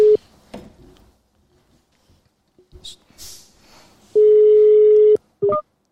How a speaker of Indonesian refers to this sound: Sekarang aku mau nyoba telepon mereka ya.